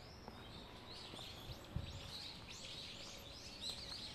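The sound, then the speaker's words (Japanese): Wild birds sing and chirp in overlapping bursts, fairly soft, in a bamboo grove on the hill above Rengeji Park in the morning, against a quiet outdoor hush with faint low rustling; no one speaks. “バックの鳥の声聞こえますでしょうか私は声を小さくしていますが今蓮華寺公園の上の方の山みたいなところに朝から散策に来て竹やぶ鳥たちいやー気持ちいいです”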